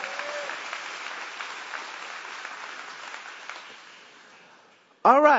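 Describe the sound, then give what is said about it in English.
A church audience claps for the Lord in a dense, sustained burst of applause that gradually fades over several seconds. A voice then starts speaking loudly as the clapping dies out. “Somebody give the Lord a hand clap for that.”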